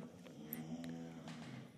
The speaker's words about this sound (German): der Hund schnarcht ein wenig